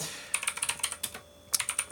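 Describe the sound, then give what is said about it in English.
Rapid keyboard typing, a quick run of crisp plastic clicks, then a short pause before another burst of keystrokes. No voices are present. “Sorry, I know you all want to see my topless form while I type here.”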